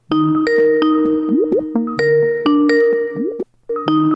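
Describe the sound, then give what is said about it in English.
A Skype call ringtone plays: a loud melodic pattern of bright electronic tones with quick pitch slides, repeating twice with a brief gap near the end, no voices. “So we'll get to Snake and Rachel on the Skype line right now.”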